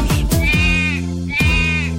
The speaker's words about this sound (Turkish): Diye meleşir çiftliğinde Ali Baba'nın